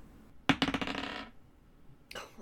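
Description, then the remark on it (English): Dice are rolled for a perception check, clattering across a hard tabletop in a quick burst of rapid clicks that rattle and settle within a second, followed by a short second roll near the end. “Uh, you notice that yeah, I rolled a ten.”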